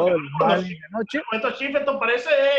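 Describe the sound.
A remote caller talks continuously over a thin, phone-like line, with an echo that makes the voice sound doubled and smeared, steady and fairly loud throughout.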